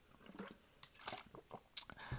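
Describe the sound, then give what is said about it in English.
Someone takes a quick sip of a drink, with a few quiet wet mouth and swallowing sounds and one sharper slurp near the end. No one speaks. “So let me just have a sip.”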